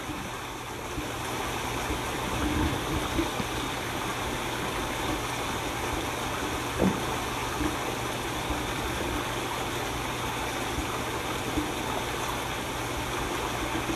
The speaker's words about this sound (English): The flow of water.